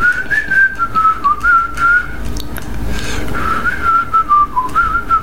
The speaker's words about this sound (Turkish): Ben ıslıkla çaldım ilk kez böyle bir şey.